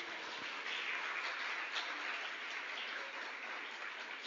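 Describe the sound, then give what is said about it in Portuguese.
An audience applauds the Lord Jesus in a dense, steady wash of clapping that holds at an even level throughout, with many hands blending into a continuous roar and no voices on top. “Você crê, você pode aplaudir ao Senhor Jesus.”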